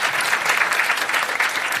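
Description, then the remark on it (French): Steady audience applause given as a vote in answer to a question, a dense wash of many hands clapping at an even loudness throughout, with no voices standing out above it. “Par applaudissement, est-ce que vous écouteriez un boys club en anglais ah.”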